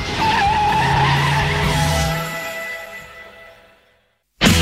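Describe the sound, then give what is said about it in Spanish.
A car engine roars loudly with tires screeching in a sustained skid, then the noise fades over a few seconds into near silence before a sudden loud burst cuts in. “Este coche tira bien.”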